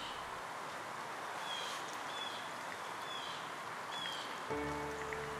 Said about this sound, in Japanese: ほら高いところから葉っぱがお話ししているのが聞こえるよ。さやさやさやそわそわそわ。何を話してるのかな